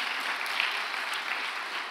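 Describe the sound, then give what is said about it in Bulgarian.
A church audience applauds during a sermon, a dense wash of many hands clapping at once with no gaps, moderately loud and even throughout. “О, ако ръкопляскаш, ръкопляскай, като че наистина вярваш.”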